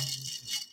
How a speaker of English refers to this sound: Your your your drinky isn't properly stirred, is it? Yeah, that's why I gotta. He's got a stir stick. He's got a. So that's the noise you're hearing, in case you're curious.